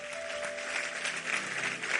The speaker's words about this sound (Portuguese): Aplauda ele, porque ele é digno. Vamos ficar de pé.